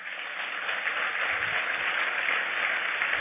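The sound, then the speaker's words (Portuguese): An audience applauds God during a sermon, a dense, steady wash of many hands clapping together that holds at an even, fairly loud level for a few seconds with no voices over it. “Aplauda ele forte.”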